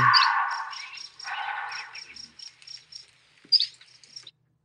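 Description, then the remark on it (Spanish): A bobcat, recorded by a hunter, screams twice in harsh, raspy bursts, followed by a run of short, high-pitched chirping calls and one last sharp screech, with no talking. “Ese es un gato montés gritando.”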